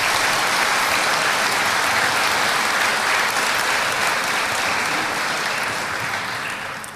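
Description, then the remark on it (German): Sustained applause from a large event audience welcoming CSU honorary chairman and former federal finance minister Theo Weigel, a dense steady patter of clapping hands that stays loud for several seconds and then begins to fade toward the end. “Applaus”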